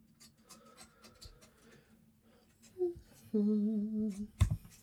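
A dog whines from outside a closed door, a short muffled whimper followed by a longer, higher wavering cry, heard alone with a soft scuffle at the end.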